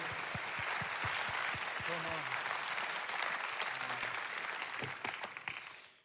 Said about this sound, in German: Lass uns Gott einen Applaus geben für das. Come on.